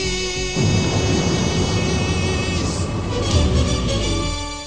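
thunder

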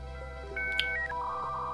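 telephone dialing tones

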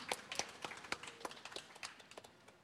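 audience applause

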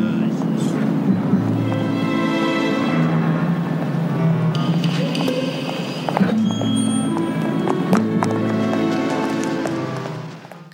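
busy city street ambience

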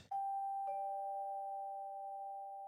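doorbell ringing

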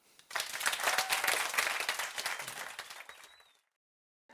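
small audience applause

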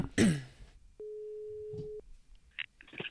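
telephone ringing tone

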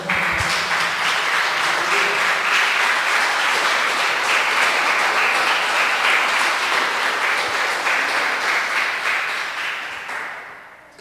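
audience applauding loudly

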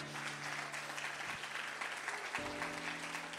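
audience applause

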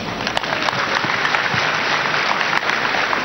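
audience clapping

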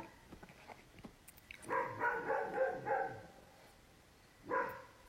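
dog barking repeatedly

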